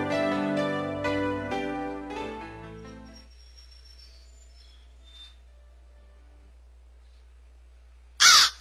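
A crow caws several times in quick succession, harsh and loud, then the calls fade into a long quiet stretch before one brief loud burst at the very end. No one speaks.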